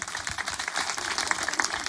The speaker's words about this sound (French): Une bonne réponse, on peut l'applaudir